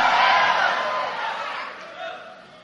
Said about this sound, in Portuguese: Bate o pé no chão, dá um grito de vitória em nome de Jesus.